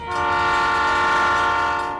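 A train horn blares in one long, steady, loud blast lasting about two seconds, its rich harmonic tone holding constant pitch over a faint rumble, with no voices.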